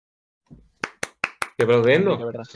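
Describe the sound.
Four sharp hand claps in a quick, even rhythm, crisp and fairly loud, followed right away by a person's voice speaking over the end.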